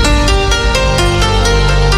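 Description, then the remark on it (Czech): A loud snippet of an upbeat new pop song played on the radio as the week's featured new song. A steady, driving beat pulses under thick sustained synth chords and a deep bass, with no talking over it. “Říkáme tomu Fresh Song. Pro tento týden to zní takhle.”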